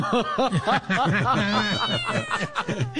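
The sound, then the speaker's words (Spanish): Several cats meow in quick, overlapping succession, their rising and falling cries loud, forming a busy, continuous chorus for about three seconds. “¿Quién está tocando esos gatos? Esos gatos.”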